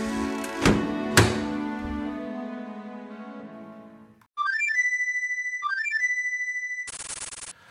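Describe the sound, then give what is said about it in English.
A door is shut with two heavy thuds that ring out and fade. Bright electronic chiming tones follow, ending in a buzzy synthetic burst. No one speaks. “Let me uh, have an introspective moment and um, take one last look at the Mentor Tournament 2020 and then shut the door.”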